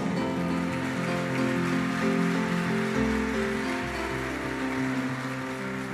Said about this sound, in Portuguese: E se você crê, diga amém e dê um aplauso ao Senhor.